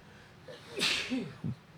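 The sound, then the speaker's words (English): A single sneeze: a quick breath in, then a sharp, noisy burst with a voiced, throaty tail that trails off, followed by a brief snort-like exhale. “Bless you. Thank you.”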